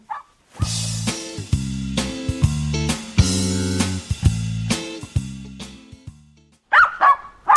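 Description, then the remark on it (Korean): A dog barks loudly and repeatedly at a person it fails to recognize, a rapid run of sharp, harmonic barks in quick succession, ending with a few higher yipping barks after a brief pause. “이놈의 개가 사람도 못 알아보고 짖어.”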